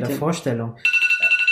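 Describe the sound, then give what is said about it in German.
A man speaks briefly, then an alarm clock starts ringing loudly, a shrill electronic tone pulsing rapidly and steadily until the end. “Das ist der Wecker.”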